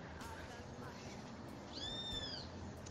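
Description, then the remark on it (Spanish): Birds call over a steady low background rumble: faint, scattered chirps early on, then a clearer, louder rising-and-falling whistled call near the end. “entendiendo que todos, todos somos uno junto a toda la magnífica creación que disfrutamos como estos pájaros”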